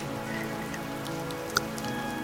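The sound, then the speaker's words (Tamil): Light rain drizzling steadily under a darkening sky, a soft continuous patter with scattered individual drops and one slightly sharper drip near the end; no voices. “வானம் கொஞ்சம் இருட்டிகிட்டு இருக்கா லைட்டாக மழை துரல் போடுதா”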